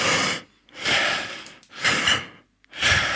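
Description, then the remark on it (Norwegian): Deep, forceful breaths drawn in and let out as a demonstrated breathing exercise, about four loud airy rushes in a steady rhythm with brief silent pauses between them, no talking. “så bare slipper du ut.”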